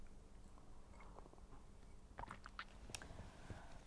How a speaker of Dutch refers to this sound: Oké, ondertussen nam ik heel eventjes een slokje thee.